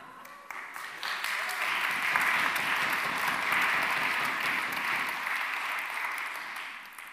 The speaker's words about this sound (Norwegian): En eh, antydning til applaus der, den kan vi jo henge oss på.